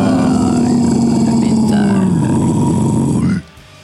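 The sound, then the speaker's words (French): A loud, sustained guttural growl, a deep rasping metal-style vocal roar held steadily for about three seconds before cutting off abruptly. “Bah, euh, très beau guttural. Ça manquait de réverb, mais pas mal.”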